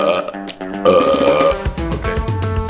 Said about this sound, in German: Aber nein, es gibt eine viel, viel bessere Taktik, mit der du instant den Sound und das Gefühl und den Bass erzeugen kannst von einem Rülps.